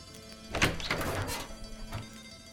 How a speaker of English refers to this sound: A knock on the door announced a visitor.